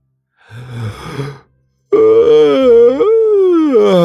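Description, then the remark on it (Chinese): A voice acts out a big yawn while stretching: a breathy drawn-in gasp, a short pause, then a long, loud, moaning exhale that slides up and down in pitch. “然后他站起身来，用力伸了个懒腰，打了个大大的哈欠。”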